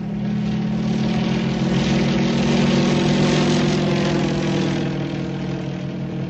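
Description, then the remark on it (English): A propeller airplane drones steadily overhead, its engine a constant low hum with a throaty buzz that holds loud and even for several seconds, with no voices. “In the air.”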